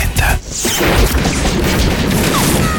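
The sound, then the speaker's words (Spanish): A loud, relentless barrage of gunshots strikes the cab of a subway train, a dense clatter of cracks and metallic impacts running together with almost no pause for nearly three seconds. “La lluvia de tiros se encarga de hacer la ventilación de toda la cabina de peligroso.”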